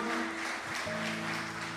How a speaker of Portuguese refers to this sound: Isso. E assim que você se colocar de pé, você vai dar para Jesus, você vai dar para esta palavra a tua melhor salva de palmas. Vamos aplaudir. Isso, vamos aplaudir ao Senhor.